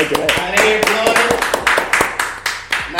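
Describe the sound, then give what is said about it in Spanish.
A short burst of applause: sharp, irregular hand claps come in a quick, uneven stream, fairly loud, with voices murmuring and calling out underneath. “Eh, un aplauso.”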